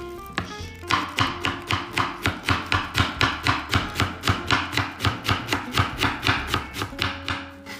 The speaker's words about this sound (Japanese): まずは鶏肉を切る前にまな板を何個も洗いたくないのでまずは野菜千切りキャベツから作っていきたいと思いますこのジャパンレスで働いていた腕の見せどころですねさあ綺麗な音ができる出るでしょう芯が多い